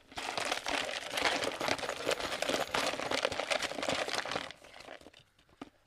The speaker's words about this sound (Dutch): Dus ik pak hem erbij, de grabbelbak, en ik ga lekker grabbelen.